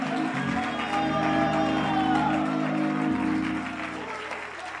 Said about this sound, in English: Would somebody clap your hands and magnify God?